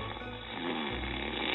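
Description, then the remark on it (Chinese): A steady, raspy snore from a man asleep lying on the ground with his head among mustard plants runs through the whole short moment, low and rumbling with a slight swell in loudness partway through, and no one speaks. “第二天，他又发现他躺在地上，头扎在芥菜丛里，呼呼的打着呼噜。”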